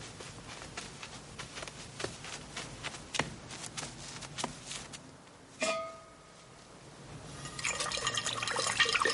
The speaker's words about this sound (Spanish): Va a la cocina y pone agua en un cazo para hacer café.